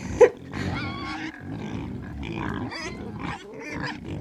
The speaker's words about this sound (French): Mais c'est un cochon C'est un porcelet mais ils sont en train de les tuer